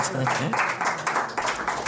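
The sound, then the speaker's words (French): A steady burst of applause congratulating the winner of a prediction contest, many hands clapping in a dense, continuous patter throughout, moderately loud, with a voice briefly audible underneath at the start. “Que d'applaudissements pour”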